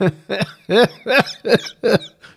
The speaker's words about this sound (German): muss gerade husten